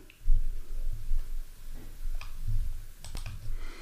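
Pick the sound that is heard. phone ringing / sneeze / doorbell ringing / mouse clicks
mouse clicks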